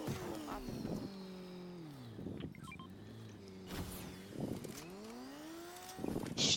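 A video game motorcycle engine revs up and down repeatedly, its pitch sweeping high then dropping in several rising and falling bursts, loud, with no talking.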